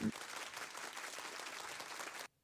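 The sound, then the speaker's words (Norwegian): A burst of canned applause plays for about two seconds, a dense steady patter of many hands clapping at even loudness, then cuts off abruptly. “Applausknapp nå. ah, der var det.”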